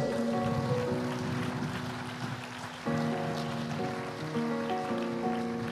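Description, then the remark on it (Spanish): Steady audience applause given to the Lord, a dense crackling clatter lasting the whole stretch, over sustained keyboard or organ chords that shift midway. Nobody speaks. “Dale un aplauso al Señor por esto.”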